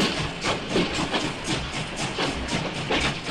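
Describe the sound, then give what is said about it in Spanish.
A steam locomotive chugs along with steady, rhythmic hissing chuffs roughly twice a second, loud, with no voices over it. “Para situarte, en el año 1804, exactamente el mismo año en que Sophie se elevó por los aires, en Gales se creó la primera locomotora, el inicio de los trenes”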